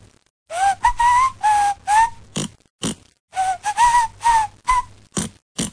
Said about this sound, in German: Aber du kannst mir viel erzählen, äh, das, was du davor gepfiffen hast, mhm. äh, das, ist, das war nie und nimmer ein Refrain.